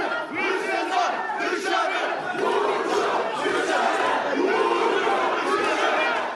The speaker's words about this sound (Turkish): Bir grup hırsızlar dışarı diye slogan atarken diğer bir grupta Burcu dışarı diye bağırmaya başladı.